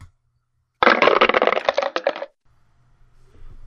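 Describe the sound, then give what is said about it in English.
Small dice clatter and rattle across a hard table in a quick, dense burst of clicks lasting about a second and a half, loud, then stop, leaving only a faint low hum. “Those funny little dice.”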